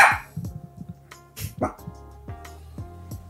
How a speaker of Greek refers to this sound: βάλει mute γιατί γαβγίζει το κτίνος